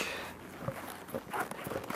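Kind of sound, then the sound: impact, footsteps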